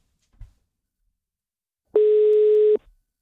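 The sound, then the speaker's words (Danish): A single steady ringing tone of an outgoing phone call to the person who posted a classified ad, one clear beep lasting under a second after a soft click, with no one speaking. “Og tidligere dag, der ringede vi til personen, der har lavet den annonce der.”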